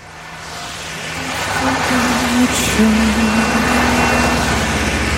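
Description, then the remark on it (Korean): A car rolls past with muffled music playing inside, a faint low melody riding over steady engine and road noise that swells as the vehicle draws near. “자, 이제 지금 차를 타고 지나갑니다. 옆차에서 음악 소리가 들려요.”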